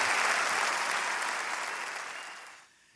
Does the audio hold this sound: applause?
yes